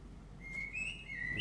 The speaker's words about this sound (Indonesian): nih burung udah makin berisik